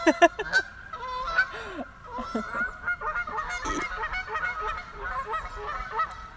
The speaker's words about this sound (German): Aus gegebenen Anlass sitzen wir gerade ähm, am schönen äh, See im Wald. Da hört man die Enten vorbeifliegen. Genau, die rufen, wer sich auskennt, ist ja klar, kein Tag ohne rufen die.